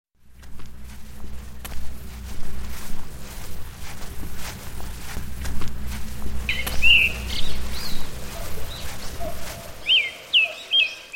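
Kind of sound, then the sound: bird, birds chirping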